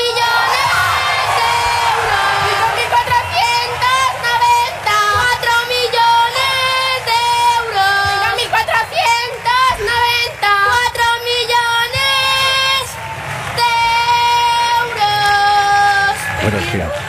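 Children shout and cheer excitedly over winning the lottery top prize, el gordo, many high, overlapping voices in sustained, sing-song cries that rise and fall, loud and continuous for the whole stretch with brief dips between bursts.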